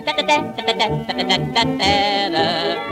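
A trumpet plays a short, bright phrase in a song: a few quick staccato notes followed by longer held tones, loud, with no talking.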